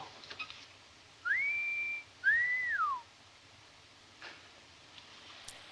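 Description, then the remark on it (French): A person whistles two clear notes: the first rises and holds steady, the second swoops up and then slides down. The whistling is close and alone against a quiet background. “You know how to whistle, don't you, Steve? You just put your lips together and blow.”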